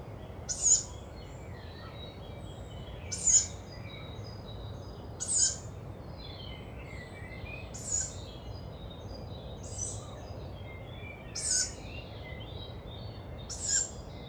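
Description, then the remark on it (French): Juvenile tawny owl begging calls at daybreak: high, hoarse squeaky screeches repeated about every two seconds, seven in all, over a low steady outdoor rumble, with no talking. “Donc je rappelle, ce sont des cris de jeunes chouettulottes.”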